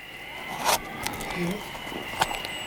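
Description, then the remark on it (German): Soft handling noises of an old tobacco pouch being opened and rummaged through: a few brief zip-like rasps and crinkly scrapes at uneven intervals over a faint steady background hum. “Moment, was liegt da denn? Ein äh, alter Tabaksbeutel?”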